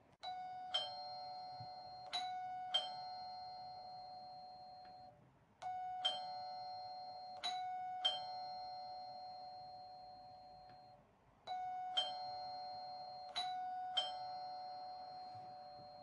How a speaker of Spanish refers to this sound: Al volver a la farmacia y verla cerrada, puso el dedo en el timbre y apretó con fuerza durante un buen rato.